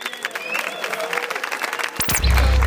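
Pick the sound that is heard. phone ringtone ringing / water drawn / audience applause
audience applause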